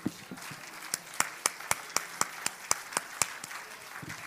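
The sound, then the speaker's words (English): An audience at a morning church service cheers for the Lord, clapping in a steady, even rhythm, about four sharp claps per second, over a bed of crowd noise and scattered voices, briefly looser at the start and end. “we give the Lord a big cheer before we sit down this morning?”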